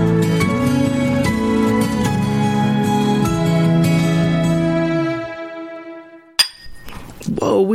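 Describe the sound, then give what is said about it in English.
Song music plays and fades out, then a single sharp clink of shot glasses knocking together rings out, followed by faint glassy handling and pouring noises as a couple of chilled shots of Patron are poured, with lime and salt. “almost broke those glasses. During that beautiful song, I poured us a couple of shots of Patron, chilled with a lime and salt.”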